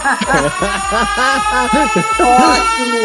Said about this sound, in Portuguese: Quem tem aí uma sirene para bater? Ótimo!